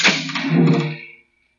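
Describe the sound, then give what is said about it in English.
A gallows trap door drops open with one heavy wooden thud as a female prisoner is hanged in the town of Renoir, followed by a rattling, resonant decay that fades out after about a second, leaving silence. “Very well, the trap door. Hang her.”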